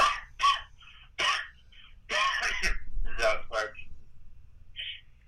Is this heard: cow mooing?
no